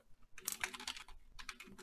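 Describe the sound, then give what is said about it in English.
Rapid clacking keystrokes on a clacky computer keyboard, two quick bursts of typing separated by a brief pause, crisp with no talking. “Sorry, I got a little bit of a clacky keyboard.”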